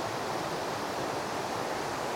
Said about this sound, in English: I want to just invite you for a moment to just listen to that sound. Just try your best to tune in to the sound of this water on the podcast and tune out of wherever it is that you are, wherever your head is at right now.